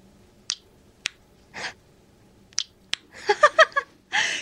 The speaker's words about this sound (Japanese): 今私の目の前にあるんですけど本当手のひらサイズ手の上に乗る小さなプチプチに1234567個かな、はい、プチプチがあるんですけどちょっと実際今プチプチしてみますか聞こえるかな